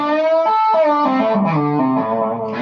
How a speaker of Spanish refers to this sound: Cuando haces un bend y haces, por ejemplo, un tap, suena el tap, pero de dos trastes hacia arriba, ¿no?